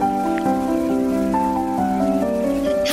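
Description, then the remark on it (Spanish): Steady rain patter fills the background beneath sustained, gentle classical melody lines by Mozart, from a Spotify playlist called Brain Power Amadeus with rain and forest ambience, the rain hiss constant throughout. “Música de Amadeus eh, Mozart, eh, que es mi compositor favorito, con sonido ambiente de, pues, de lluvia, de bosques y tal.”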